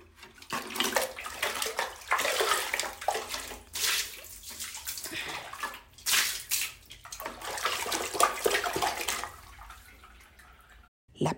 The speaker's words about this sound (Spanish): Estoy envenenada, se repitió mirando a su hermana, que ignorante de su suerte, seguía jugando con el agua.